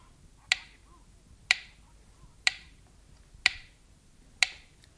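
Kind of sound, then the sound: household object, clock ticking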